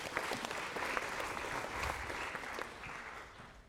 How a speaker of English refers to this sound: A round of applause for our two feistier, feistier players.